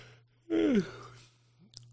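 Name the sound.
yawn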